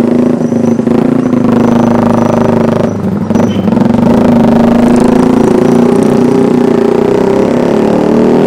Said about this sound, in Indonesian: Itu harusnya motor dengan suara knalpot kayak gitu tuh di ban aja berisik bayangin kalau motor kayak gitu masuk ke sebuah gang kecil jam 12 malam bisa dilemparin dandang sama ibu-ibu